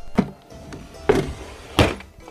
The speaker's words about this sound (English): Ah, a sound so melodic and filled with Christmas cheer it could have been the mating call of a turtle dove. In that moment, the entire store was taken aback by the beautiful timbre of a lone VHS sliding through the return slot.